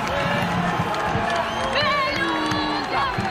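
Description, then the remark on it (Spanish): A large crowd in Argentina roars in a sustained ovation as President Javier Milei comes out on the balcony, dense cheering and shouting with whistles and chanting voices rising above the steady wall of noise throughout. “La ovación de la gente, los escuchamos.”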